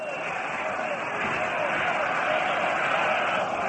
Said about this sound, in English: You can hear the go-go fans hollering, go, go, go, Landis.